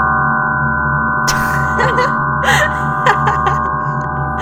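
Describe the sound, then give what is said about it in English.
A sustained, harsh gong-like drone built from many steady tones stacked into a dense, dissonant chord, holding evenly throughout, with a few brief breathy vocal sounds over it. It is the emission spectrum of oxygen turned into sound, its many emission lines sounding together. “That is a gong that is not underwater.”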